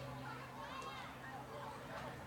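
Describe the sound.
Children playing on a playground jungle gym, heard as a steady, faint babble of young voices with occasional higher calls rising from the mix, continuous throughout.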